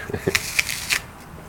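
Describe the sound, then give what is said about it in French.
Someone bites into a crisp Sunrise apple: a quick run of three or four sharp, crackly crunches with softer chewing sounds between them, moderately loud, and no one speaking. “Euh, ben je ben me permets de croquer dans, dans, ta, sunrise.”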